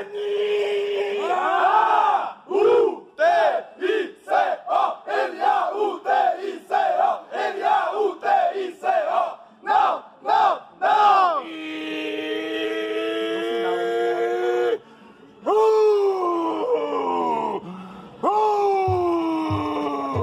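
A stadium crowd of red-and-white club supporters chants the club's biggest anthem and war cry, starting with rhythmic, punchy shouted syllables in a steady beat, then swelling into long, sustained sung notes from many voices.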